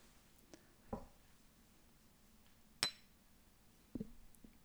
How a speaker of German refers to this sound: Ich finde, das mache ich gut mit mir selber anstoßen.